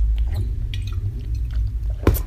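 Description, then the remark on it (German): Someone sitting on the floor takes a sip of water from a refilled water bottle: soft mouth and lip noises followed by a short gulping swallow near the end, with no talking over it. “Ich muss mal gerade einen Schluck Wasser nehmen hier.”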